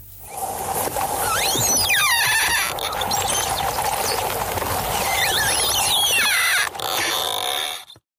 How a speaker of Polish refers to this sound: Jestem święcie przekonany, że większość z Was pomyślała o tym, że jest to otwieranie zardzewiałych drzwi. To jednak dźwięk lodu, który pod ciśnieniem wody unosi się.